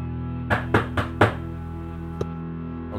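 A bearded man in casual denim clothes knocks on a car door: four quick, evenly spaced raps followed after a pause by one fainter knock, all over a steady low droning hum.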